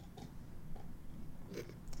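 A dog, Brody, chews on a bone behind the speakers, giving a few quiet, irregular crunching and gnawing bursts over a low background rumble, with no one talking.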